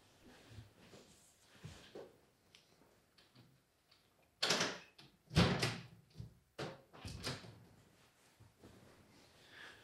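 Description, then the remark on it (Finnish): A sequence of loud knocks and thuds as a window is shut and latched, with several sharp impacts close together in the middle against quiet background noise. “Ehkä mun pitää laittaa toi ikkuna kiinni.”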